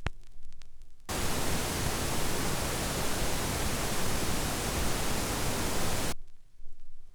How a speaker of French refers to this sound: En phase, il doit sembler provenir du centre, entre les deux haut-parleurs. Hors phase, sa source n'est pas localisable, on ne sait plus d'où il provient. Voici à nouveau le bruit en phase, au centre.